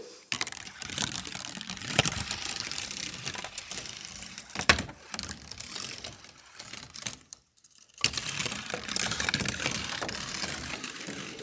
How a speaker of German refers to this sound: Ja, du wirst nicht wissen, was das ist, aber ich verrate es dir, das ist eine Kugelbahn.